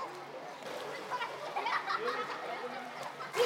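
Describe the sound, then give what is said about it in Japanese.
Children playing in a swimming pool: a steady, echoing jumble of young voices calling and chattering, with faint splashes of water mixed in throughout. “プールで遊ぶ子供たち”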